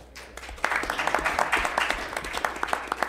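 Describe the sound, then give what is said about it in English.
An audience breaks into applause as Jim Jordan is welcomed, a dense steady patter of many hands clapping that swells quickly and holds at a fairly loud level for several seconds. “Uh, don't don't clap. I haven't said anything yet”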